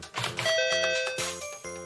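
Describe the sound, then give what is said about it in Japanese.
A doorbell rings out a quick series of bright ding-dong chimes, the tones overlapping and ringing clearly, with no talking. “ピンポンピンポンこうかな”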